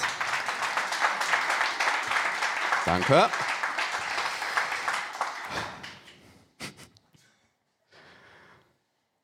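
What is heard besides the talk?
audience applause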